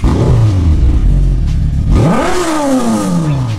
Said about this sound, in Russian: Не бережешь двигатель, сказали бы лет 20 назад человеку, который завел мотор и сразу поехал.